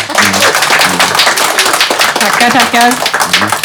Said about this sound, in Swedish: Ge henne en applåd.